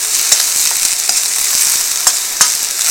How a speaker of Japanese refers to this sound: いやもやしもやしはさ音も匂いもいいよねもやし炒めるとかこう中華鍋で中華鍋でこうごま油でもやしをね炒めるじゃん